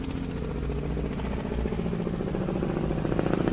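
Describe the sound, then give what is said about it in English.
A steady, throbbing helicopter drone fills the scene, its low rotor pulse continuous and moderately loud, as the helicopter circles overhead. “what the fuck is that helicopter doing? It's circling the place.”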